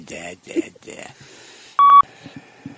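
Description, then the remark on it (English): A single loud, steady electronic beep lasting about a quarter second cuts in after some indistinct voice sounds, followed by a few soft low thumps. “And you didn't give me any time between da, the beep da, and the...”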